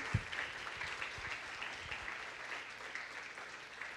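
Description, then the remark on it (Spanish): An audience gives a strong applause to God, steadily for several seconds, a dense, continuous patter of many hands clapping at an even loudness with no voices standing out. “Dale un fuerte aplauso a Dios porque es para estar feliz.”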